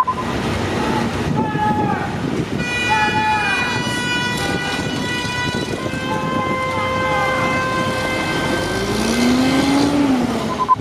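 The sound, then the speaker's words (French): Congested city street in a traffic jam in Manhattan, New York, with a steady roar of engines and many car horns honking and overlapping, some held long, plus a wailing siren rising and falling near the end. “Ainsi, ce vendredi 28 février 2020, vers 15h, Tom Tom comptait encore 11 km de bouchons à Oslo, ce qui n'est pas énorme comparé aux 232 km parisiens et aux 546 km de bouchons enregistrés ce jour-là à New York, notamment sur l'île de Manhattan.”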